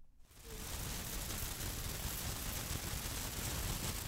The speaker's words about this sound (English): That's the sound of a sprinkler system dousing a lush green lawn in Tewksbury,